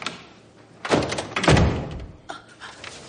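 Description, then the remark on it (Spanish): The door of the prime minister's office swings shut as a woman leaves and closes it behind her, with two heavy thuds, a dull knock followed by a louder, deeper slam, then a faint click as the latch settles, with no voices. “Luego sale del despacho y cierra tras de sí.”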